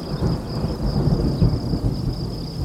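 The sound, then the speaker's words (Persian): A deep, continuous rumble of thunder rolls through steady rain, loud, with a thin high hiss running across the whole stretch and no voices. “اه بچه ها رد و برق زد بهتر خوابیدن با صدای بارون”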